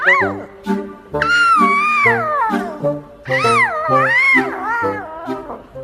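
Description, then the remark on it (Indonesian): Leo, a little lion cub in a children's story, roars in a series of loud, drawn-out yowls, high-pitched and wavering up and down, with no one talking over them. “Leo, si singa kecil ini memiliki suara raungan yang lantang sekali.”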